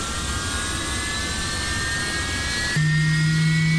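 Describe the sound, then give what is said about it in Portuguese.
Over a steady jet-engine roar inside an MD-80 airliner, the horizontal stabilizer actuator suddenly kicks in with a loud, sustained low mechanical hum near the end, while the pilots try to free the stabilizer. “Seguido do acionamento do estabilizador horizontal.”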